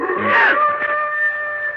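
large animal howling

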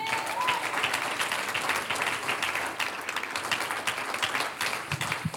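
audience applauding

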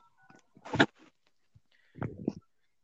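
phone number being dialed

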